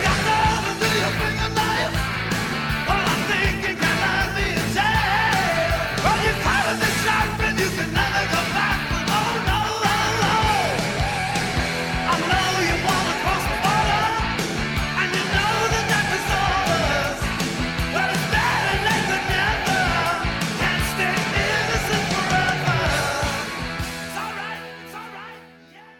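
A loud, dense heavy metal rock song plays continuously with driving guitars and drums and forceful vocals, holding full volume before fading out in the last couple of seconds.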